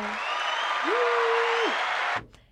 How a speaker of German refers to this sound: Oh, ich habe einen Applaus.